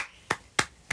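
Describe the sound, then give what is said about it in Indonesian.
Three crisp hand claps made by hand as a manual applause sound effect, in a steady, evenly spaced rhythm, each a short sharp smack with a quick decay, with no talking around them. “efek tepuk tangan manual uh, gitu oh untung dijelasin itu bunyi tepuk tangan ya biar nggak usah edit edit”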